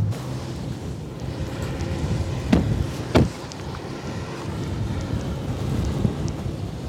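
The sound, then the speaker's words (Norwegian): Strong wind roars steadily in a low, rumbling rush at wind turbines running at full production, buffeting the microphone, with two sharp gusty thumps midway; no one speaks. “trodde ikke det blåste så fælt i dag.”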